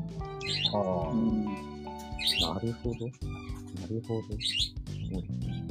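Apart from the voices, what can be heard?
pet parakeet chirping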